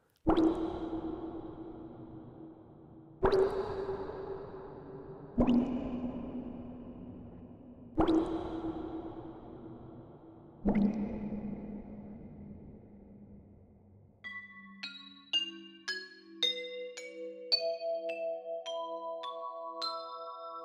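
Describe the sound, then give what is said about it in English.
Heavy liquid drips fall one at a time, five in a slow, steady rhythm, each with a resonant, ringing tail, followed by a quick rising run of bright electronic tones. “and her blood dripped on Cassiopeia.”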